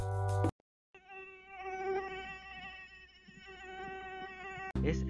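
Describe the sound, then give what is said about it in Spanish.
A mosquito's thin, high-pitched whine drones steadily for a few seconds, wavering slightly in pitch as if hovering, framed by brief bursts of other sound at the start and end. “hasta que escuchas el típico sonido del mosquito frustrante.”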